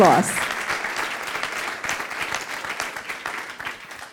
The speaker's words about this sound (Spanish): Dale ese fuerte aplauso al Señor.